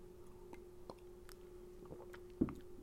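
Someone takes a quiet sip of a drink, with soft wet mouth clicks and a faint swallow, then a brief thump near the end over a steady low hum.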